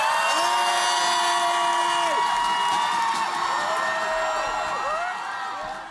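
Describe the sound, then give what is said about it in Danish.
A large protest crowd shouts and cheers together at Christiansborg after a countdown from three, in one loud, sustained roar, individual voices rising and falling within the din, easing off slightly toward the end. “Så tæller jeg til tre, og så skal vi råbe Christiansborg op.”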